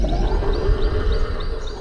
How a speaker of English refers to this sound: Whoa, …. Was that your stomach?